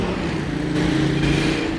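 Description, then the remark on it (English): The heavy engine of an old diesel-powered bus drones loudly and steadily as it passes in the dark, its low rumbling harmonics rising slightly, with no voices over it. “This bus definitely sounded uh, like an old-fashioned gasoline-powered or diesel-powered bus.”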